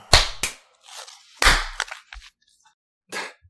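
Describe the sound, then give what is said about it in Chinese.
Several sharp hand claps, made on cue after a countdown as a recording starts, ring out at irregular intervals, two quick loud ones followed by another strong clap and a few softer, scattered smacks, with no talking. “Three, two, one，拍手。”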